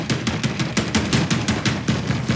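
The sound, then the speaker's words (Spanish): Insistent knocking on a door from outside, a rapid and steady series of roughly ten loud raps, hammering on without pause and with no voices. “Afuera, Marie golpea insistentemente la puerta.”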